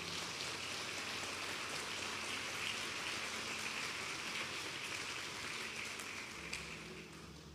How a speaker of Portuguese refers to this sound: Pode aplaudir.